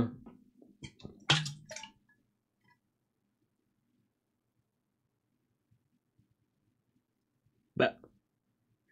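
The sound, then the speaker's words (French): Someone twists and squeezes a plastic water bottle, producing a crinkly crackling burst near the start and another short crackle several seconds later, with quiet pauses between. “pas ouvrir une bouteille d'eau, quoi.”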